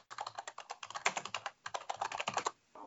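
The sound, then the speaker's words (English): Fast, steady typing on a computer keyboard, crisp, with dense clattering keystrokes that pause briefly midway and then stop near the end. No one speaks. “Kevin, that's good typing.”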